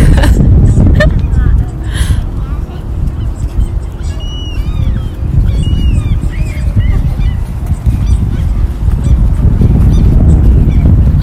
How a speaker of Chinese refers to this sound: 听到你那边有鸟叫啊！